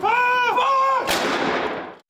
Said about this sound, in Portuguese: O hino nacional e uma salva de tiros completaram as homenagens.